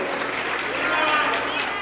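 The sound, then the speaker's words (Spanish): An audience at a seminar applauds steadily for an attendee who came from the state of Puebla, a dense, even wash of many hands clapping at a constant level with no pauses, filling the whole clip. “Yo creo que usted se lleva el triple aplauso.”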